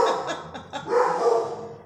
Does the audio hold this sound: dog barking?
yes